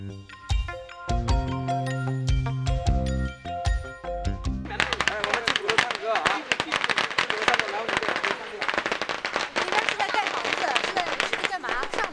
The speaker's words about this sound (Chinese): 原本大家都聚在鼓楼里边玩的正热闹，远处猛然传来阵阵鞭炮声，小孩子们立刻一哄而散，赶去看热闹。